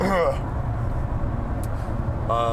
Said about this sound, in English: You guys are hearing a lot of pavement come through. We're looking over the uh, looking over the ocean right now on our way.